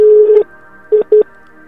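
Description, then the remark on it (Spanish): Telephone line tones from a second incoming call arriving during a phone call: a steady electronic beep, a pause, then two short beeps in quick succession, clear and fairly loud with no voices. “cuelga porque creo que te están llamando.”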